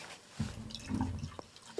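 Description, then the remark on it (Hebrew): Apple-flavoured Schweppes soda being poured, a gurgling liquid stream with a faint fizzy crackle and a couple of small drips near the end, no voices. “שומעים את הגזגוז?”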